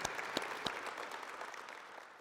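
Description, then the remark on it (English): A crowd of tribal leaders, dignitaries and special guests claps in a steady round of applause, dense overlapping claps with a few sharper hits early on, holding fairly even in loudness before easing slightly toward the end. “Why don't we give each other a round of applause?”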